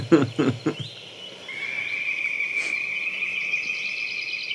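A goshawk gives a brief harsh cackle of three or four loud, rapid notes at the start, then a thin steady high-pitched trill carries on in the background; a chaffinch is also heard.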